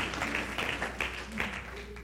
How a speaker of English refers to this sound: Why don't we clap our hands and just give some thanks for what God is going to do?